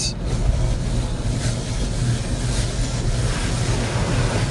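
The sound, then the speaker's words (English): A steady, loud rush of spraying water and mechanical rumble inside an automatic car wash, continuous with a deep low-end drone throughout. “I'm in a car wash right now. I didn't know it was gonna be this loud.”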